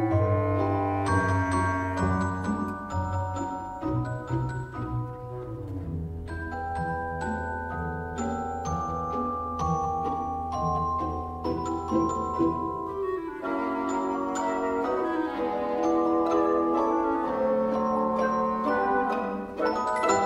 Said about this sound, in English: This enchanting piece features the celesta, which was a relatively new instrument at the time. It's a keyboard instrument with a bell like sound.